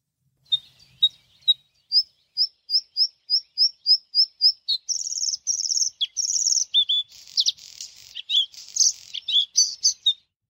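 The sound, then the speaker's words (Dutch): A bluethroat sings clearly: a run of evenly spaced, accelerating high ticking notes, then a varied burst of buzzy, rattling and twanging phrases, with no voices present. “wat horen we hier eigenlijk? De blauwborst.”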